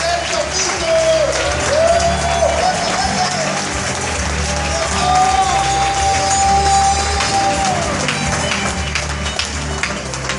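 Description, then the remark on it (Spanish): A crowd at a company event in Peru applauds loudly and steadily to welcome a platinum-rank member of the company, dense clapping filling the space, with cheers and scattered voices rising over it and a sustained tone drifting beneath. “Así que ayúdenme a recibir con fuertes palmas al rango platino de la compañía,”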